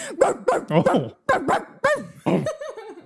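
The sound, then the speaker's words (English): A person's voice imitates a dog barking, giving a quick series of short, fairly loud woofs in a few clusters with brief pauses, ending in a softer, trailing whine-like tone. “What was that? That's not a dog.”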